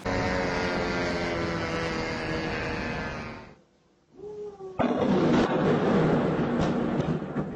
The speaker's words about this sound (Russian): Зато на них хорошо просматривается пролет дрона рядом с экспоцентром и момент взрыва.